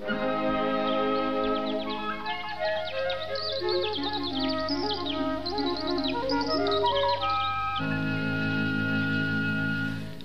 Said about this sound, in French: Donc euh, effectivement, si vous videz votre sifflet à eau, vous allez retrouver un petit son euh, tenu, aigu et très peu agréable.